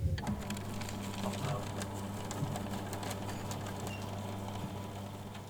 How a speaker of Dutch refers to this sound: Iedereen in het publiek schreef op papiertje wat ze wilden stoppen. En duwde dat door de papierversnipperaar. Dat klonk dan zo.